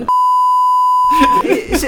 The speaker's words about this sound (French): On, va biper, on va biper, t'inquiète.